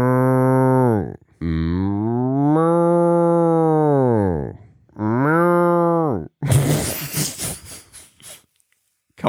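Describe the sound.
A person imitates a cow with three long, drawn-out moos, loud, the middle one longest, followed by a burst of noisy breathy sound or laughter at the end.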